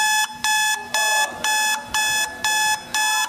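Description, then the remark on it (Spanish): An alarm clock rings in the morning with loud, shrill electronic beeps in a steady repeating pattern, about six bursts evenly spaced, insistent, with no one speaking. “Es incómodo, es molestoso. A todos nos molesta en la mañana.”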